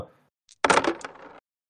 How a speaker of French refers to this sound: Donc il va lancer 8 dés, 7 de ses caractéristiques et 1 de travail d'équipe. Donc 8 dés avec 1 de soif.